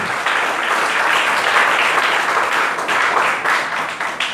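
A church audience breaks into sustained applause for the Lord during an evening service, a dense, steady wash of many hands clapping at once, loud and continuous for several seconds with no one speaking over it.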